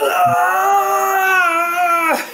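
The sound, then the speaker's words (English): A person vocally imitates the agonized scream of a Warhammer character who has been cut through and stunned, one sustained, wavering high-pitched wail lasting about two seconds, loud and strained, then cutting off abruptly. “he's just yeah. screaming.”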